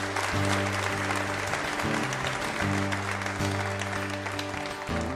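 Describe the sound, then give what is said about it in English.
A Red Barn Radio audience claps and cheers steadily throughout, loud, for a live band that plays sustained chords underneath, shifting every second or so. “And now, once again, give it up”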